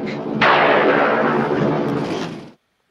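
A sudden, loud thunder crack bursts in sharply, then rolls on as a dense, roaring rumble for about two seconds before cutting off abruptly. No one speaks.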